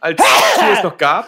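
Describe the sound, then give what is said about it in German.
A single sharp sneeze bursts out over a man's speech, followed by a short spoken phrase. “Äh, Gesundheit.”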